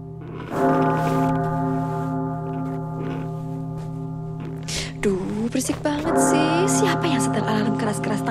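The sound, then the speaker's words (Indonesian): A deep clock bell strikes once and its rich, humming tone rings on steadily for several seconds, loud, while a voice talks over the lingering resonance toward the end; heard at midnight in a hotel. “Dasar bunyi lonceng jam sialan.”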